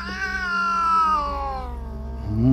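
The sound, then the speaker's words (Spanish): A loud, drawn-out cat meow with a wailing tone that slowly falls in pitch, coming from an apartment, heard alone, followed by the start of another rising cry at the end. “De repente escuchaban un fuerte maullido de un gato que salía de ese departamento.”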